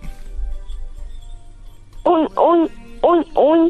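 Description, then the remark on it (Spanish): A child's voice imitates a pig grunting: four short, nasal, fairly loud grunts in a quick, even rhythm, following a couple of seconds of low background rumble. “Muy bien, y ahora puedes hacerle como un puerco.”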